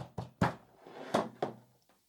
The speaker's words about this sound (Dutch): Loopt naar de deur en hij pakt de deur klinkbeet en hij probeert. Hé, hey, deur is dicht. Dat is vreemd. Nou ja, Jimmy bonst op de deur.